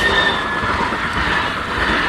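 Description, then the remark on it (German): An M8 tram rushes past in the Fennpfuhl area of Berlin-Lichtenberg, Germany, a loud steady roar of rails and wheels with faint high squeals threading through, continuous for the whole moment with no voices. “Guck mal, hier rauscht immer die M8 durch.”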